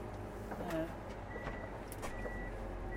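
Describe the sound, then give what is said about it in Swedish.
A snow groomer rumbles as it shifts into reverse at a grill hut, with mechanical clunks and a steady high whine starting partway through as the tiller lifts, backing up to lay the tiller down outside the hut's door. A muffled voice is briefly audible. “Så nu kanske ni hör att jag lägger i backen och lyfter fräsen.”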